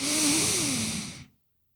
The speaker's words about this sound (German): Atmen tief ein und raus. Atme tief ein.